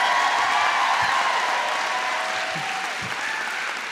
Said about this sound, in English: Give us your most exuberant, your loudest, your warmest applause for Hari Kondabolu.